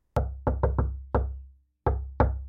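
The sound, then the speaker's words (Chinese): Seven solid knocks on a wooden door in an uneven rhythm, a quick cluster followed by a brief pause and a final pair. Each knock is loud with a deep, hollow thud, and no one speaks. “黑兔兔皇后敲敲门”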